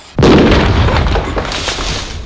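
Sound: explosion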